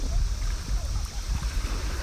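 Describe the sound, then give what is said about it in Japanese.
Gentle sea waves wash steadily, a continuous low rumbling swash with soft hissing spray on top, fairly quiet and without any voices. “今は何の神様にも見えないですねただの緩やかな波にしか見えない”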